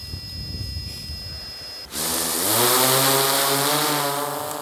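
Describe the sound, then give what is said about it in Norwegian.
A faint steady whine over low rumble, then the propellers of a new prototype drone, test-flown by Norsk Folkehjelp Midt-Troms in Norway, abruptly spin up for takeoff into a loud, buzzing roar with a rising pitch that levels off and holds. No one speaks. “Etter flere telefoner til politiet, luftambulansen og flytårnet på Bardufoss, kan Norsk Folkehjelp Midt-Troms testfly prototypen av en ny drone.”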